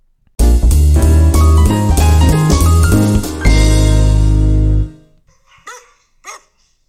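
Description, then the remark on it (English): A loud musical sting of sustained chords plays for several seconds, then fades, followed by two or three short, fairly quiet dog barks heard alone near the end. “That's a bark.”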